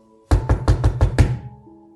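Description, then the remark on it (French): Six quick, evenly spaced knocks on a wooden door, loud, each a solid thud, followed by a brief fading quiet. “Et pile à ce moment-là, ce juif entendit frapper à la porte.”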